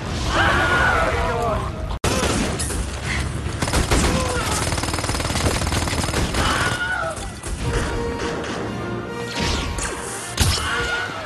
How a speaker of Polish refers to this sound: To jest tak zwany Wilhelm Scream. To jest taki jeden bardzo charakterystyczny krzyk. Krzyk wzięty z filmu, z westernu z dawnych lat, który podkładany jest no, w dziesiątkach filmów.